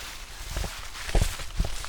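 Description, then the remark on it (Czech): A few footsteps tread at a steady walking pace through a cemetery in a deep forest, each a soft low thud, about 23 steps from one grave to another, over a constant outdoor hiss with no one speaking. “Tak já budu počítat, kolik kroků je to od Ješka k Voskovci a Verichovi.”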